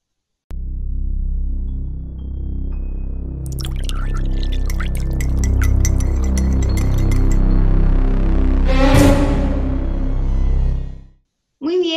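A drink pours into a glass with a few bright clinks, set over a steady low droning tone that fades out near the end.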